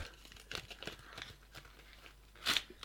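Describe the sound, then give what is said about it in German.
Crisp crinkling and rustling of wrapping paper being torn off a gift, the packaging of a deck of cards, with scattered short rips and one louder tearing burst near the end; no voices. “Oh Gott, jetzt habe ich das Papier komplett zerstört.”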